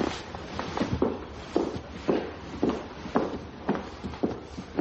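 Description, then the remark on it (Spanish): Steady footsteps walk toward a door, each step a soft thud with a brief scuff, falling at an even pace with no voices. “Camina hacia la puerta.”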